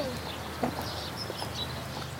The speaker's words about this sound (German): Man hört ganz viele Vögel, die zwitschern.